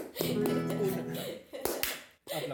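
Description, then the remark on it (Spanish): A few sharp, scattered hand claps ring out over and between a person talking, with two louder slaps near the end followed by a brief pause. “Creo que la que merece un aplauso soy yo”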